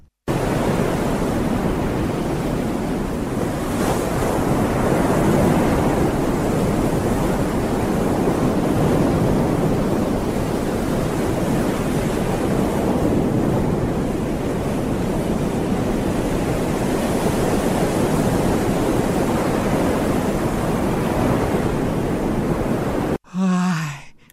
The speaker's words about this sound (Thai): ถูกต้องค่ะ เพราะว่าเสียงที่เราได้ยินอยู่นี้คือเสียงของคลื่นที่ซัดเข้าหาชายฝั่งครับ